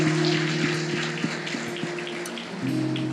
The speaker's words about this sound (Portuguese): Parabéns para todas as mulheres. Vamos dar uma salva de palmas para elas.